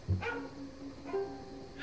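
A skinny dog at a train station, just risen from sleep, gives two short barks about a second apart, each with a brief ringing tail, moderately loud against a quiet background with no talking.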